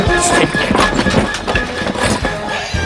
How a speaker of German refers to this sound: Moment kommt ein Reiter auf einem Pferd. Ah, der, der kommt direkt auf uns zu.